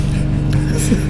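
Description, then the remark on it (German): A steady, droning engine hum from a lawn mower running outside as a garden is being worked on, continuous and fairly loud in the low range, with no talking over it. “Nein, Nein, das ist ein Rasenmäher. Das ist ein Rasenmäher.”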